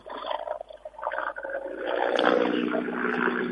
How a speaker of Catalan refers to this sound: Sentim el so ambient, sentim en aquest cas els mitjans aèris que estan treballant i també alguna sirena.